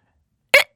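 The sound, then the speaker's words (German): A single brief, sharp vocal screech, a person imitating a bald eagle's cry. It is fairly loud, lasts only a split second, and is surrounded by silence. “Aber ich habe mir mal den Schrei eines Adlers angehört und das klingt echt, äh, eines Weißkopfseeadlers, ja.”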